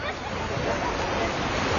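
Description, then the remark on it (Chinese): Ocean waves make a steady, continuous rushing wash, a broad hiss of surf at an even, moderate loudness with no distinct individual breaks, heard on its own without any talking. “你只能听到那个海浪声，那个心情很开朗，那个小孩子。”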